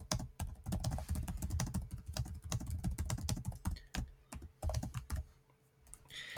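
Rapid, uneven clicking of keys on a computer keyboard, fairly loud, continuing for several seconds with brief pauses and no voices.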